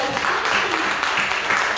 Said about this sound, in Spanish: Vamos a darle un fuerte aplauso a Dios.